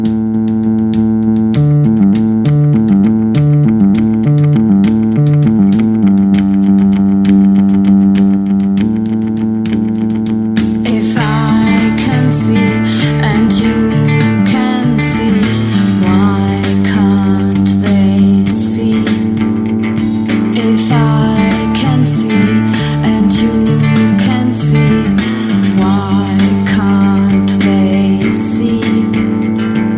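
A video game tune with a bouncy, chiptune-like melody: sparse repeating synth notes at first, then a fuller, brighter arrangement with busy percussion and layered leads kicking in after about ten seconds.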